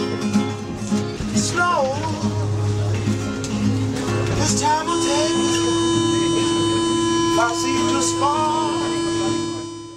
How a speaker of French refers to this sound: D'ailleurs, on reconnaît parfaitement la sonnerie de fermeture des portes à la fin de l'extrait audio.